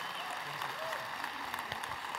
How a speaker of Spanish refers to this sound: Dale un aplauso al Señor por la vida de este hogar.